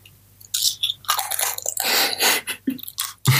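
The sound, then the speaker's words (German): Loud chewing of too big a mouthful of food in an ASMR video, with wet, crunchy bites and squishy mouth sounds coming in irregular bursts, no talking. “oh, super laut. Herzlich willkommen beim ASMR-Video Egoismus. ich habe zu, hab zu viel in den Mund getan.”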